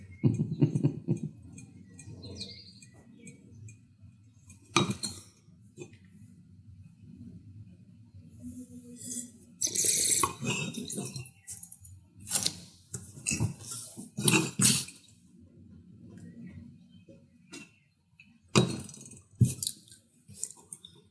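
Three glasses of wine clink and swirl softly on a table as the wines are tasted, broken by several sharp, breathy sniffs and inhales, with quiet sounds in between and no clear talking.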